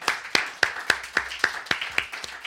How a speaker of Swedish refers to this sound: Ja! Applåd till det, verkligen, verkligen.